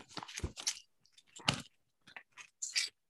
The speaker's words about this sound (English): We are opening presents for the audio listeners yeah. right now. You can hear paper tearing.